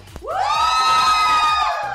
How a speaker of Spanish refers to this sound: Ya tenemos a las ganadoras, a ver. Oigan, qué bárbaras. A ver, que se escuche más fuerte el grito.